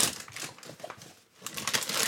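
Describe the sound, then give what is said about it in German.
Crisp crinkling of sandwich wrapping paper (Butterbrotpapier) being unwrapped from a sandwich, a busy run of rustles and crackles that pauses briefly midway, then resumes just as densely. No one speaks. “So, also ich habe hier eine kleine, kleine ja, genau. Tüte. Du kannst ja ein bisschen kommentieren. ASMR.”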